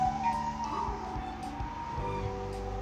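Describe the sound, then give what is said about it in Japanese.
An ambulance siren wails steadily as it passes, its wavering tone riding over a low background rumble of traffic, with no voices. “はいということでちょうどよく救急車が行ってくれたということで放送を続けていこうと思います”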